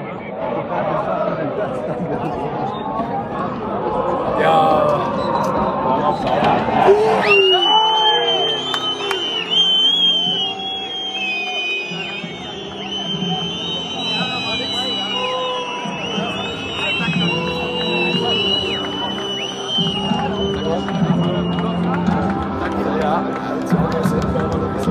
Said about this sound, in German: Jetzt ist es natürlich so, und das haben wir gerade nochmal betont, du stehst mitten in der Westkurve und was man da hört, sind die Fans des FSV Zwickau und die stehen ja bekanntlich in der Ostkurve.